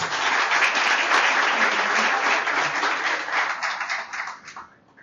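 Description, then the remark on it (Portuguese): A crowd breaks into sustained applause welcoming a guest invited to the panel table at an event, a dense steady wash of many hands clapping that holds strong for several seconds before tapering off at the end. “Uma salva de palmas.”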